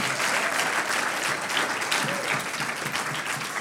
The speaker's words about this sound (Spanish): Uno, dos, tres. Ahora denle un aplauso al Señor, que el diablo lo sepa.